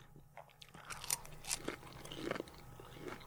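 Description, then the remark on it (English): Crunching as someone bites into crispy fried calamari, a few sharp crackles followed by steady chewing, fairly quiet with no talking. “I'm going to take a bite to see like the texture of the calamari is on point because I see calamari and that's a hard texture to come across.”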